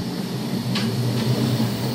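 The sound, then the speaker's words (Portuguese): A steady, fairly loud rumble of an Intercidades long-distance intercity train in motion, with a low droning hum and a couple of faint brief clicks from the rails, no voices and no station announcement. “Sem aviso sonoro de anúncio de estação, num comboio de longo curso, o Intercidades”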